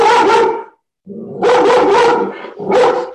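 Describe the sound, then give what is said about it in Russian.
A dog barks loudly in a run of sharp, mid-pitched barks, pauses briefly, then lets out several more in quick succession, ending with one last bark. No one speaks. “Тона согласна. Тона поддержала.”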